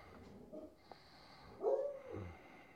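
A dog gives a single short bark, fairly faint, over a quiet, noisy background with a few soft snuffling sounds before it.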